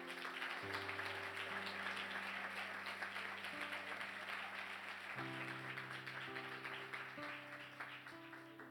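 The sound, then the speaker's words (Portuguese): An audience applauds Jesus in a steady, dense wash of clapping that lasts the whole time, while sustained keyboard chords play underneath and shift a few times. “Aplaudam Jesus então.”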